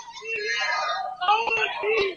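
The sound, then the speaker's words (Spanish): A man in the stands at a game shouts angrily at the referee in loud, strained, drawn-out yells that rise and fall over about two seconds, with a few sharp knocks in the background. “Y ahora hay un señor gritándole al colegiado, pero...”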